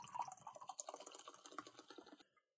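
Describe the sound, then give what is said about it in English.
A drink being poured, a quiet trickle of liquid with bubbly, splashy detail that runs steadily for about two seconds and then stops. Nobody speaks. “As I pour the next drink here”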